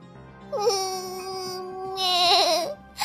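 The smallest young goat cries as it runs out, one long, high, plaintive bleat that holds steady for about two seconds, then quavers and wobbles before fading, with no talking around it.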